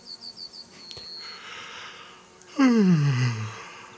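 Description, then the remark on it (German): A sheep yawns: a loud, drawn-out yawn with a voiced tone that slides downward and fades over about a second, preceded by a few faint, quick high chirps. “Ah, das 227. Schäfchen gähnt.”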